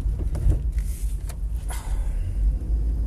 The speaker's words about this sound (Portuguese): Peço desculpa. O mesmo caminhão que saiu da estrada, sem fazer pisca, está a fazer manobras sem sequer aviso prévio.